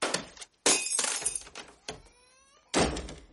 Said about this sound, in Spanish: Sale furioso y tira una figurita.